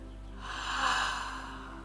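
A single slow, deep breath taken during a guided relaxation breathing exercise, an airy whoosh swelling up and then fading away. It is soft, with no one talking.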